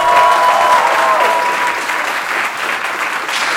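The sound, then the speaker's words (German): A loud burst of applause from the audience of Anytime Late Night in Cologne welcoming the show's warm-up act, steady clapping with some whistles or cheers rising above it, continuing throughout without any speech. “Liebes Publikum der Anytime Late Night, begrüßt jetzt mit mir euren Warm-Upper”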